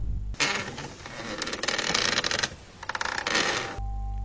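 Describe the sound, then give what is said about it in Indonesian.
A folding chair rattles and creaks for about three seconds in an air-conditioned room on a hot day, with clattering metallic clicks and scraping, a denser burst of taps near the end, then a steady hum resumes. “Tiba-tiba, ada suara kursi lipat.”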